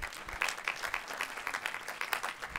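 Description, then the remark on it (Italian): A crowd applauds steadily for a few seconds, a round of applause called for the Italian national health system, many hands clapping together in a dense, even patter at moderate volume, with no voices standing out. “Facciamo un applauso al uh, sistema sanitario italiano che, grazie,”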